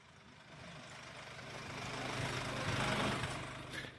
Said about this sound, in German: Da kann ich den Motor auch laufen lassen.